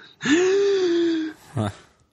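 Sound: deep breath in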